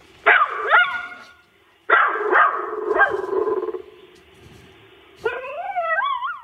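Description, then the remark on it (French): A poodle named Rex from Dieppe barks in three separate bursts of sharp, yappy barks, fairly loud. The last burst slides into a higher, whiny yelp. No one speaks. “On écoute tout de suite une question d'un caniche de Dieppe, Rex.”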